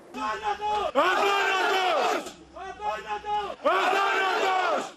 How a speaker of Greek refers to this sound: Στο κημητήριο εκτελήθηκαν συγκινητικές στιγμές με τους συναδέλφους του 29χρονου αστυνομικού να φωνάζουν ήρωας και αθάνατος και να τον αποχαιρετούν με τον δικό τους ξεχωριστό τρόπο.